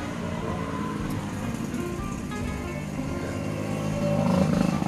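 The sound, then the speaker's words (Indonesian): A motorcycle engine rumbles steadily along a roadside street by an angkringan food stall, swelling louder toward the end as it passes, amid general traffic noise. “Nah itu guys, jenenge angkringan ya nuna pinggir jalan, ganti kayak orang saya dikai efek kayak gitu wis natural lagi gitu Motor liban ya Mas ya.”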